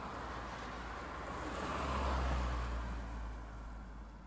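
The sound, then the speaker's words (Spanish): A car passes by outside in front of a house, a broad rushing swell that builds gradually, peaks around the middle, then fades away, with steady low rumble and no voices. “Y ocasionalmente, un auto pasaba frente a la casa.”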